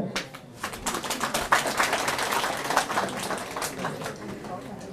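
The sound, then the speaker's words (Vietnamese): An audience at a Buddhist teaching applauds itself for remembering the steps of the Four Noble Truths sutra, steadily for about five seconds, a dense patter of many overlapping claps at a fairly even, moderately loud level, easing off slightly toward the end. “còn còn lại là nhớ nhớ được hết phải không nếu nhớ được thì phải vỗ tay tự khen mình nhé.”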